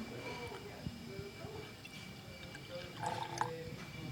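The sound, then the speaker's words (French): Non-sparkling lambic beer is poured from a jug into a glass in a steady splashing stream that swells louder near the end, with faint voices murmuring in the background. “hop, du lambic non pétillant donc, qui est versé dans un verre, et puis la gueuse qui est le résultat final, on va dire.”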